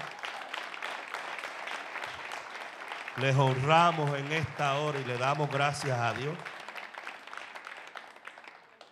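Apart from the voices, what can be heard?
applause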